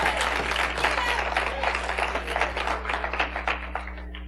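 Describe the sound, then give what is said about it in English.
An audience claps hands together in praise to the Lord, a dense, steady wave of applause from many people before gradually thinning out, with a low steady hum underneath. “Give the Lord a hand clap of praise.”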